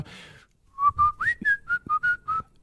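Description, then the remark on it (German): Someone whistles a short song melody, a string of clear, pitched notes in a bouncy rhythm with brief gaps between them. A faint breath or murmur comes just before the melody starts. “Das reicht wahrscheinlich schon im, Hinter im Hintergrund einfach mal einen Song zu pfeifen”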